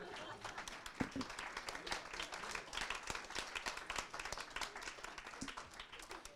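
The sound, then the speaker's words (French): An audience at a Front National event applauds the speakers of a round-table discussion, a dense patter of many hands clapping that holds at an even, moderate level throughout with a few sharper individual claps standing out. “Ce que je vous propose, en fait, comme euh, l'ensemble de la journée a été euh, et pacifique et riche, ce que je vous propose surtout, c'est qu'on applaudisse les intervenants de cette table ronde.”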